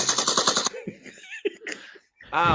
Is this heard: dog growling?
no